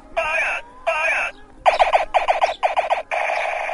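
Loud electronic toy gun effects: two bright, buzzy synthetic tones, then four bursts of rapid-fire pulsing zaps and a final sustained tone. Harsh, close and alone, with no talking.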